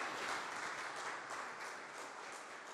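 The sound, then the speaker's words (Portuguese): An audience at a church service applauds Jesus, many hands clapping together in a dense, continuous wash of sound that stays fairly even in loudness throughout, with no voices heard over it. “Aleluia, gente, vamos aplaudir Jesus?”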